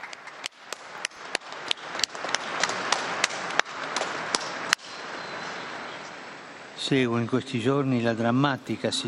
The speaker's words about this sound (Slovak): Jeden veľký potlesk pre tohto nového blahoslaveného.